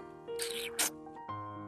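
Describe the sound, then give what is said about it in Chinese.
A gentle, light kiss imitated by a voice reading a children's story, showing how a baby mouse kisses its father: a breathy, slightly squeaky smack ending in one quick, sharp pop, over a soft, steady musical tone. “老鼠宝宝可是会给他爸爸一个温柔的、轻轻的吻，就像这样。”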